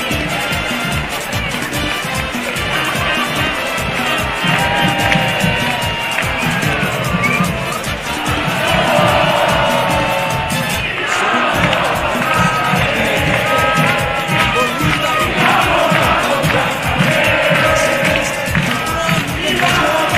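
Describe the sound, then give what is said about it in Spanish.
Loud, continuous football stadium crowd noise of joyful Bolívar supporters after Bolívar beat Tigre 1-0, with a steady, fast drumbeat and voices chanting and singing together, a dense roar that stays at an even level throughout. “Vamos con música de fondo, señor DJ, por supuesto, con el ambiente de acá de Cabina Fútbol.”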